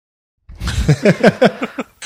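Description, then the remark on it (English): A voice imitates a kart engine revving, a quick run of six or seven rising, buzzy pulses, ending with a short breathy burst. “The engine should sound like this, though.”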